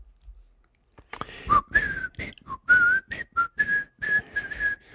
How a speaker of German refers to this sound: Und äh, pfiff das muss man sich mal vorstellen, im Frühtau zu Berge, wir ziehen Fallera.